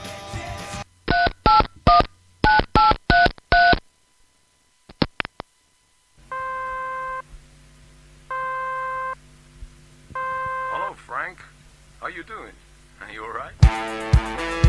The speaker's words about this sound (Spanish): Vamos a discar un poquito acá, a ver si puedo comunicarme con él